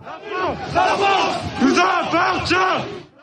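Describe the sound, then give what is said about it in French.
Protesters in the streets chant cries of support for Thomas and nationalist slogans in unison, loud rhythmic shouted phrases rising and falling in repeated bursts, many voices blending into a rough, continuous roar. “Dans les rues résonnent des cris en soutien à Thomas, mais aussi des slogans nationalistes”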